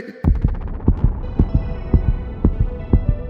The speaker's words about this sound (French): Ben voyons. Mon cœur bat donc bien fort tout à coup.